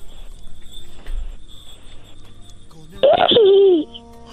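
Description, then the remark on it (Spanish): A child's voice imitates a horse's neigh in one short, loud, quavering whinny that rises and then wavers downward, following a few seconds of quiet background. “Muy bien, ahora puedes hacerle como un caballo.”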